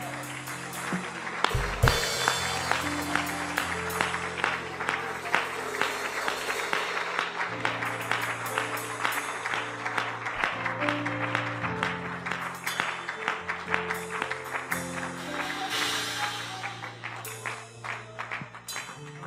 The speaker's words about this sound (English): and just clap your hands and worship God for a moment.